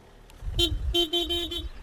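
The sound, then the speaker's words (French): The car of a local viaduct association's treasurer goes by on a quiet countryside road near a viaduct, its low engine rumble topped by a short run of quick horn toots, two or three bursts in a row. “Bon alors, même si on est euh, à la campagne, eh ben, il ben, y, a, y quand même une voiture parce que c'est celle, celle du trésorier de l'association des, amis euh, du viaduc qu'on va retrouver dans quelques instants.”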